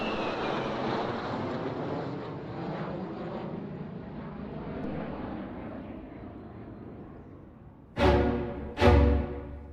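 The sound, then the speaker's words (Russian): A Soviet fighter plane bearing the inscription 'Zinaida Ermolyeva' roars steadily and slowly fades as it flies off, then two sharp, heavy booms strike in quick succession near the end. “Она передала их в фонд обороны страны, и на них построили истребитель с надписью «Зинаида Ермольева».”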